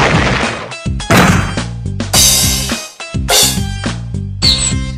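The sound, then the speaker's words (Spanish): Loud, synthetic video game key-press sound effects played in reverse, with reversed-sounding swells, bursts of bright noise building then cutting off, layered over a stepped, rhythmic low tone, repeating roughly every second with no voices. “Cuando tú aprietas la tecla hace un sonido que distinto a que cuando no sé, me estoy revolviendo, pero el chiste es que son los sonidos invertidos.”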